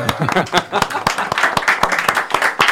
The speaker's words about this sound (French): Ah on, peut applaudir. Hein.